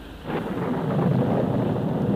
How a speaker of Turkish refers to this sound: Yağmur çiselemeye başladı.